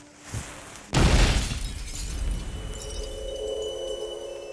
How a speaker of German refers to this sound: Da es aber zwischen Frachtraum und Schiffsküche eine Verbindung gab, gelangten die hochexplosiven Alkoholdämpfe in die Kombüse. Und als der Koch dort den Herd anzündete, kam es zu einer Explosion.